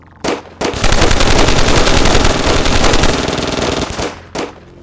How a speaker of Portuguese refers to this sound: A porta de vidro é, esfumaçada, ela abre e o, o agente, a hora, a hora, que vocês veem ele pegar a arma e apontar para vocês, vocês já começam a meter bala nele.